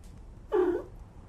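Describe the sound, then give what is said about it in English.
A single short meow from Walter, the cat featured in a Chevy Silverado ad campaign, fairly clear, rising out of a quiet background hiss and fading after about a third of a second. “we discussed the Multiflex tailgate and how they landed on the Chevy Silverado campaign that features Walter, the cat.”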